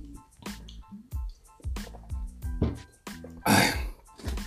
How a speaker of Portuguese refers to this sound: Beber uma água aqui.